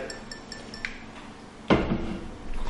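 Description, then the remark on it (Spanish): Beer glasses clink together in a toast on Beer Day, a sharp knock of glass on glass with a faint ringing tail, among a few lighter tinkles and low background noise. No one speaks. “Quiero hacer un brindis”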